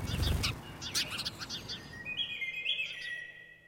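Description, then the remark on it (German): Sparrows chirp and chatter in quick, busy bursts by a path, scattering away from a bicycle, a lively cluster of short tweets giving way to a few longer, thinner calls, moderately loud outdoors. “Sie schilpen, zetern, stieben vor einem Fahrrad davon.”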